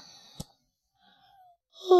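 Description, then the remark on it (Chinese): A big, bored yawn: a drawn-out vocal sound, starting as a faint breathy moan and swelling into a loud voiced exhale at the end, after a single brief click. No words are spoken. “哦，哎呦，无聊的打了一个大大的哈欠。”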